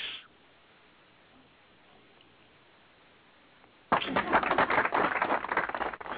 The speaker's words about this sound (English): I, I finally got the uh, applause button uh, uh, pressed at the right time.